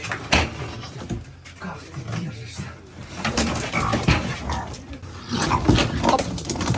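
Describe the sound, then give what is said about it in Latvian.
A raccoon stolen from the Kherson zoo squeals and chitters in frantic, uneven bursts as it resists being grabbed by the tail and thrown into a cage, while scuffling and rattling noises surround it. People's voices are mixed in, and the commotion grows louder and more agitated toward the end. “Ieraksts pavadīja arī video, kurā redzams, ka dzīvnieks, kurš ļoti pretojas, tiek sagrābts aiz astes un iemests būrī.”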